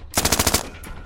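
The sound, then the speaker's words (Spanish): A short, rapid burst of machine gun fire, around seven sharp cracks in quick succession, loud and rattling, followed by a fading echo and one fainter report trailing after. “El otro apuntó y disparó una nueva ráfaga”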